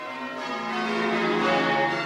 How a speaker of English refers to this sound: Are you here to ring the bells? This church is dedicated to St Dunstan.